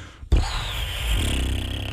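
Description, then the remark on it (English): A voice imitates a balloon inflating: a sudden onset, then a steady, breathy hiss with a rising whistling tone, lasting under two seconds. “That's the that's the sound of the balloon inflating, and then we look at the budget, and then you let a little out.”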